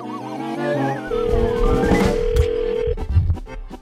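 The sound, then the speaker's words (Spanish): A phone call being placed to a bakery: a single steady telephone tone holds for about two seconds, layered over busy background music with a warbling melody, ending in clattery noise. “Tenemos el teléfono a esta mm. pastelería, feo.”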